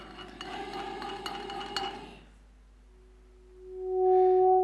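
A heated metal tube begins to hum as air warmed by the metal rises and vibrates inside it: after a burst of metallic clattering, a low, steady droning tone with a faint overtone swells up and grows loud, holding one pitch.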